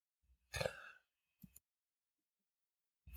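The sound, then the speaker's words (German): A fairly loud cough bursts out once, followed by a shorter, softer cough-like sound a moment later, with quiet pauses around them and no talking. “Oh, da musste ich aber nochmal husten.”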